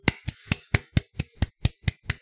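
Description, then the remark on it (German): Applause from what sounds like a single pair of hands: about ten sharp, evenly spaced claps in a steady, brisk rhythm, moderately loud, with no voices. “Applaus dafür.”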